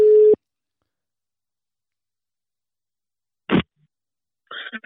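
A short, steady telephone ringback tone from a call to a former sports director at Nordjyske cuts off at the start, followed by a long silence, a sharp clatter as the line picks up, and then brief faint sounds on the line.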